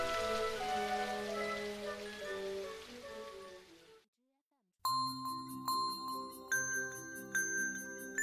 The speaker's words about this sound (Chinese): 窗外的大雨还在哗啦哗啦的下着